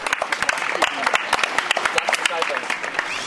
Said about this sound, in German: Das Fahrradkino hat an diesem Abend prima funktioniert. Kein einziges Mal ging der Filmprojektor aus. Die Fahrer haben tapfer durchgehalten. Und dafür gibt es am Ende einen großen Applaus.